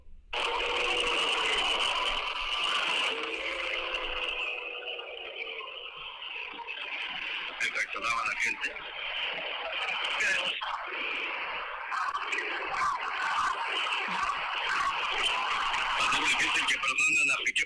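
A large stadium crowd roars continuously, with shrill whistling, jeering boos, insults and rhythmic chanting aimed at a Barça player each time he touches the ball, rising and falling in a dense, loud wall of sound throughout.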